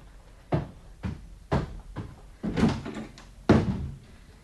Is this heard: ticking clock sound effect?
no